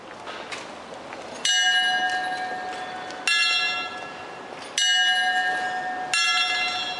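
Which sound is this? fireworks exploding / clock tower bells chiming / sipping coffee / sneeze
clock tower bells chiming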